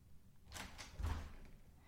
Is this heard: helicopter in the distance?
no